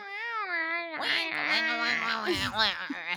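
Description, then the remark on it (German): A human voice imitates one of the odd noises cats make but are rarely heard: a strange, drawn-out yowl starting as a thin wavering wail and breaking into rougher, warbling meows and whines, fairly loud for about three seconds. “Aber, oder die ganz komischen Katzengeräusche machen, die Katzen auch machen, aber die man fast nie hört.”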